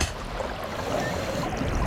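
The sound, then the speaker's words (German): Water rushes and splashes steadily as a diver wearing fins plunges under, a dense, churning wash of sound that stays fairly loud throughout, with no voices. “Dann leg deine Flossen an. Du tauchst ab.”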